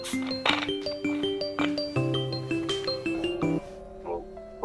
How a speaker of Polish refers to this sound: O, ktoś dzwoni. Bierzemy.